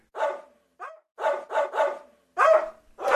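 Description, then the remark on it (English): A farm dog that has just woken up barks about six times in quick, slightly uneven succession, loud, with brief silences between the sharp barks and no one talking. “I ran away with the lettuce in my mouth just in time because I heard a farm dog wake up and start barking.”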